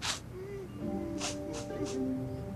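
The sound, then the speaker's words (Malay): A person sobs quietly, with sharp gasping sniffs breaking through a thin, wavering whimper that drags on underneath. The crying is faint, with no talking. “Bunyi macam orang menangis terisak-isak.”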